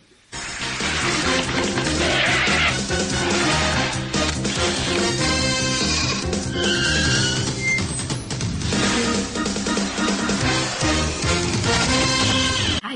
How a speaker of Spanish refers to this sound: Bueno, pues después de esta marquetería de Transilvania, Jaime, ponnos la siguiente sintonía.